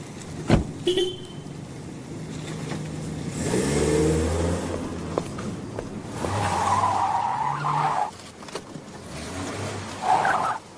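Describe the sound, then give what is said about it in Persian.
A car engine revs up in loud bursts, with tires skidding and squealing between the surges, the engine pitch rising and falling repeatedly over several seconds. “ای بابا با ماشین ایراد نداره که”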